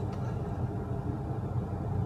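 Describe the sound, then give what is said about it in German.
Steady low engine rumble inside a car driving to Frankfurt, a continuous droning hum with road noise, fairly loud and even throughout with no voices. “Ja, warum melde ich mich mal wieder aus dem Auto? Ich bin unterwegs nach Frankfurt.”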